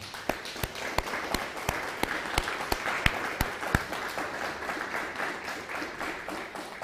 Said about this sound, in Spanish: Dele un fuerte aplauso al Todopoderoso.